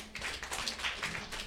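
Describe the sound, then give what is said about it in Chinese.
A few audience members at a show in Shanghai clap unevenly for a moment to signal that they have never had an English name, a scattered patter of sharp hand claps at a steady moderate volume with no voices over them. “我问一问，在座诸位，在任何时候没有过英文名了，就鼓鼓掌。”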